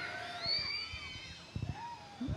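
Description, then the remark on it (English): A crowd of children in an audience screams together when asked to, many high-pitched voices overlapping into a sustained, shrill wall of sound with a few thumps underneath. “If you're a kid, tell me that you're here. Scream really loud.”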